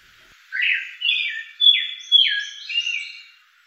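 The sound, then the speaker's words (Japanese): An eyebrowed thrush sings in spring among several large sudajii trees at Rikugien garden, a short song of about five clear, slurred whistled phrases, each starting strongly and fading, rising into higher twittery notes toward the end. No other sounds. “陸義園の白鳥関には大きなすだじが何本もありその中で真美茶寺内はさえずっていました”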